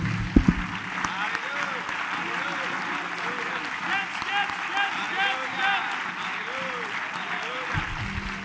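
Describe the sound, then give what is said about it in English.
An audience breaks into sustained applause to give the Lord praise, a dense, steady wash of many hands clapping for several seconds, with voices murmuring and calling out underneath. “Let's clap our hands and give the Lord great praise.”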